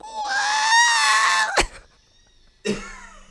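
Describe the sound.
A voice mimics R2-D2-like robot droid beeps: a long, high, wavering electronic-like tone ending in a sharp click, then a brief pause and a shorter squeal, fairly loud.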